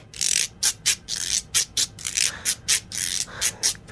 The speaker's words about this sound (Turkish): Bildiğimiz sarı mısır sokakta satılan bir mısır alıp evet, kuru bir kurusun. mısır, kurutulmuş bir mısır ve bu aynı zamanda bir guiro denen bir alet oluyor. Tırtır yani bunun ismi.